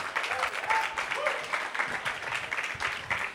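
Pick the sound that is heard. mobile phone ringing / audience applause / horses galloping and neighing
audience applause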